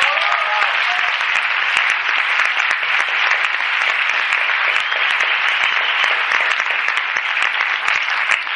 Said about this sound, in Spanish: de verdad que otro aplauso para ellos